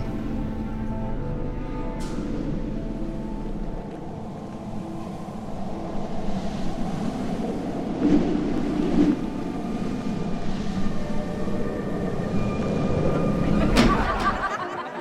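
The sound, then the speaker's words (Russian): Steady, rushing autumn wind pours in through an open window into a university corridor, a continuous low roar with a faint tonal hum beneath it, swelling slightly louder toward the end with a couple of brief clatters. “Осенний ветер врывается сквозь окно в коридор университета – тебе кажется, что это ветер свободы.”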